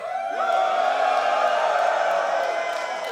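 A live audience cheers and shouts steadily for a few seconds, making noise in support of Team Musk, a dense, loud wash of voices with whoops and a rising yell standing out near the start.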